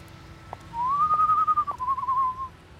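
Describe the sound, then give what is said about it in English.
A single long whistled note rises slightly, holds steady for nearly two seconds and then dips, heard against faint low background hum, with a few soft clicks, coming from a darkened alley. “She didn't make it very far before she heard a whistle coming from a darkened alley.”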